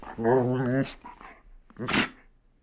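A dog barks in reply: first a drawn-out, whiny yowl, then after a short pause a single sharp bark, with no other sounds around it.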